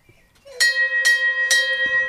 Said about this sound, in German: Wir brauchen nochmal jemanden, der aufsteht und an die Glocke geht und eine Runde bimmelt.